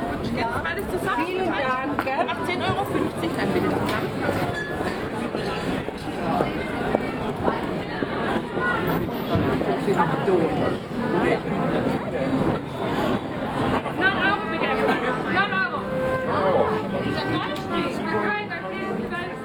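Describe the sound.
Dense crowd chatter fills an outdoor baroque Christmas market in Ludwigsburg, many overlapping voices blending into a steady, lively hubbub with occasional footsteps, continuous and fairly loud throughout.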